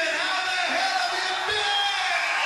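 Live audio from a 1980 concert tour: a dense, loud concert crowd roars continuously, with a voice yelling out over the din as someone shouts a song request from the audience.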